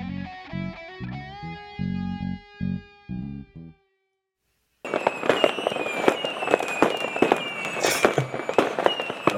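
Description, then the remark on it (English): A short tonal jingle plays, then after a brief pause a dense barrage of fireworks erupts outdoors, rapid crackling pops and sharp bangs overlapping continuously and fairly loud, with no talking. “I got some fireworks”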